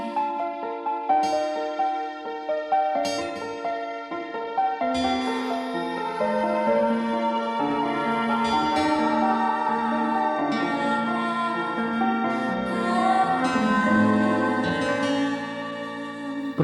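Instrumental outro of a song: layered, sustained melodic tones with shifting chords, playing steadily at moderate loudness for the whole stretch, no singing or talking.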